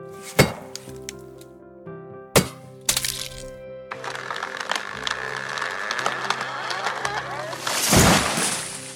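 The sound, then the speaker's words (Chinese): Three sharp, heavy axe chops from a woodcutter land into a tree, followed by a long rising crackle of the tree splitting and creaking, ending in a loud crashing burst, with soft music underneath. “樵夫半信半疑的往第六棵树走去，一二三四五六，樵夫高高举起他的斧头，用力的砍下去，”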